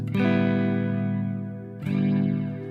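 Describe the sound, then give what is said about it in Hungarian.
Two loud, sustained distorted electric guitar chords played through an effects unit, each ringing out with a thick, buzzing, slightly shimmering tone before the next is struck. No one speaks. “Az most nagyon divatos, menin ez a hangzás.”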